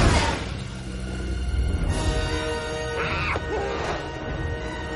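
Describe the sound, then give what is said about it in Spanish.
In a Snoopy cartoon, a dog aboard a zeppelin breaks a glass pane that falls onto a red airplane: a sharp, noisy crash right at the start, followed by a few seconds of sustained tonal sound effects with brief rising and falling whistling notes. “La perrita observa los aviones desde el cepelín y rompe un cristal que cae sobre uno de los aviones rojos.”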